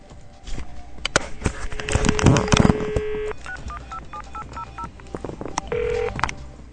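A phone number is dialed with a quick series of beeping keypad tones, followed by a ringing tone on the line, a call to the Tolerancia Cero line of the Ministry of Transport and Communications, heard clear with some background noise and no talking.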